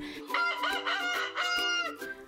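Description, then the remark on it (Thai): A rooster crows once, loud, a long, harmonically rich cock-a-doodle-doo with rising and falling segments lasting about two seconds, no talking over it. “ไก่โหก็หมายถึงมาแต่เช้ามาก่อนใครมาก่อนเวลา ก็น่าจะมาจากเสียงร้องของไก่นะคะ ที่ไก่จะร้องทันทีที่พระอาทิตย์ขึ้น”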